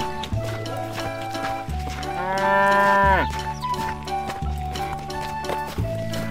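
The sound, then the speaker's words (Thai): A single drawn-out cow moo, from one of two cows pulling a farmer's cart loaded with unhusked rice, rises out of a steady, tonal musical backing with a low rhythmic pulse; the moo holds for about a second before its pitch sags at the end. “มีชาวนาคนหนึ่งได้นำข้าวเปลือกจำนวนมากใส่เกวียนแล้วนำไปให้วัวสองตัวช่วยกันลากไปขาย ยังอีกหมู่บ้านหนึ่ง”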